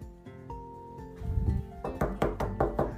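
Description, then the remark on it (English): Music plays throughout, then a series of five or six loud, evenly spaced, forceful knocks on a door cuts in over it, as someone locked inside the ice-covered Spy Kids HQ knocks on the doors trying to get out. “began to knock on the doors and try to get out, there was no way.”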